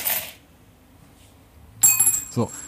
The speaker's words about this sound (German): Das war jetzt aber was für eine laute Münze. Das wirklich eine laute, sehr laute Münze.